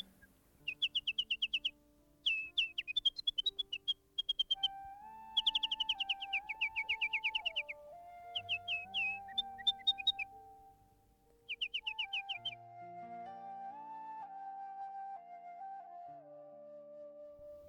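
A nightingale sings in bright, rapid trilled phrases, several short bursts separated by brief pauses, clear, over a soft steady humming tone with no voices.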